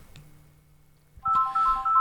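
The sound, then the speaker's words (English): A phone rings loudly with a warbling electronic tone that starts abruptly after a quiet moment with a faint low hum, then repeats in short pulsing bursts. “I think that's ringing through. I'm not sure if you guys can hear that.”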